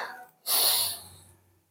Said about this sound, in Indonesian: Tarik nafas perlahan